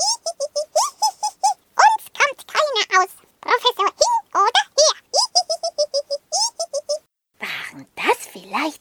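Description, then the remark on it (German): A burst of high, squeaky cartoonish chattering gives way near the end to a single loud, breathy, sudden sneeze from Hundling, who has caught a cold. “und als dann auch noch Hundling niesen musste, da war es beiden klar.”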